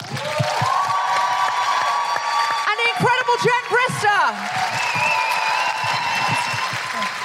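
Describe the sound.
Sustained audience applause fills the whole stretch, a dense, steady wash of clapping with a few cheers, while an amplified voice speaks over it.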